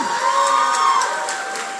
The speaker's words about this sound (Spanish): pero denme un aplauso a la banda, vean, qué increíble, ¿no?